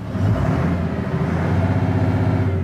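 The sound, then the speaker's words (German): A fishing cutter's engine sputters and chugs, a loud, rough, uneven rumble that briefly falters before settling into a steady running drone, as the blue-and-white boat is started after several attempts in the harbour of Jastania on the Bay of Gdańsk, in calm weather. “Nur Fischkutter Alvin will nicht. Der Motor stottert.”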